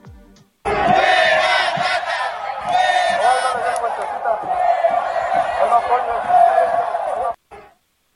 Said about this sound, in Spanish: el grito en las tribunas, lejos de ser un grito de apoyo y de euforia